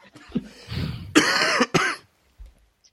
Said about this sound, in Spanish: que me muero con la tos.